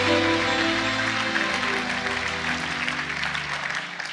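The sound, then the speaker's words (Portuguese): An audience applauds steadily and fairly loudly for several seconds, a dense wash of clapping over sustained low musical tones that fades slightly toward the end. “Se é para aplaudir, aplauda com vontade, irmãos.”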